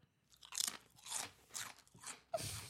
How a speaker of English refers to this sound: Sorry. Are you eating, I'm just I'm interested. I, I am interested. I was like front row eating my chips, listening to what you're saying.